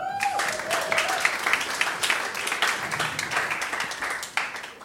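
Steady applause from an audience fills the space, a dense wash of many hands clapping continuously at moderate loudness, with a faint tone fading out at the start.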